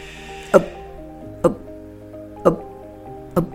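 Four short, voiced hiccups come at a steady pace, about one per second, each a sudden sharp gulp over a faint, steady humming background.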